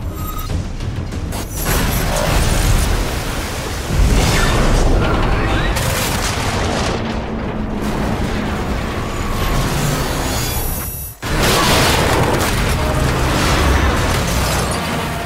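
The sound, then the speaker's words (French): A ship crashes into a bridge: a loud, sustained roar of grinding metal and deep booming impacts that continues for the whole stretch, with a brief drop before the crashing surges back. “Là, le, là, le bruit qu'on entendait, c'était un bateau qui arrivait sur un pont.”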